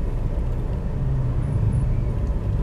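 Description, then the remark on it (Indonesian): Steady low rumble from inside a car stuck in a traffic jam, an idling engine and muffled road noise holding at an even level throughout, with no voices and no distinct events standing out. “untuk menghilangkan bosen gua di mobil di jalanan yang macet ini”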